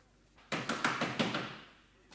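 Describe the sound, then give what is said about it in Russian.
A door is flung open with a sudden loud clatter, a quick run of rattling knocks and thuds over about a second, then the sound fades away, as a female doorkeeper comes in. “Дверь распахивается, входит привратница.”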